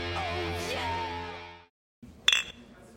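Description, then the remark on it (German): A bright, ringing clink of glasses touching once in a toast in a stadium press room about an hour after a game, following a brief silence after a sustained, droning tonal passage; faint room noise lingers around the chime. “So, äh, Prost.”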